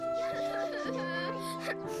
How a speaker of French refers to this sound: Enzo le dingo essaye de réconforter son ami. Ne pleure pas, Blue. Tout va bien se passer.